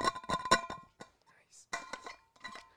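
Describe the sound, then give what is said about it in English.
The metal lid of a Hydro Flask water bottle clinks and bangs as it is closed, in three quick clusters of ringing metallic knocks and clatters, separated by short pauses, with no talking over them. “But yeah, nah, I'm that guy that has a hydro flask that like be making noise, closing just it and banging shit.”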